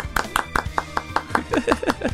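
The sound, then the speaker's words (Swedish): Steady, evenly spaced hand claps applauding a guest at the end of an interview, roughly five per second, sharp and moderately loud, with a voice-like tone rising underneath toward the end. “Ja, nej, det är du som applåderas här.”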